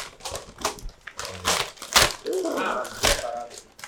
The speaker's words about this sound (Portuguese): Tá. Mas não é a sacola o presente, tá, pessoal? Pode rasgar.